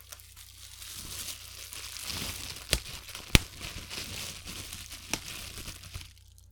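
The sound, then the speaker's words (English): Bubble wrap, one of five materials used to create a campfire sound effect, crackles and crinkles steadily, with a few sharper pops standing out above the continuous rustle before it fades at the end. “The five items that went into creating this sound were sandpaper, a wooden chopstick, human breath, cellophane, and bubble wrap.”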